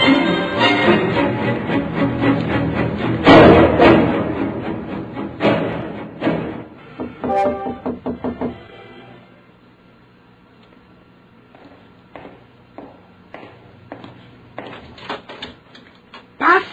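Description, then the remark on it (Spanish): A locked door is unlocked and opened: a burst of rattling clicks and clunks from the lock and latch, then a quieter stretch with scattered knocks and a final thud. “dispensa que le haya echado llave a la puerta porque puede que la policía.”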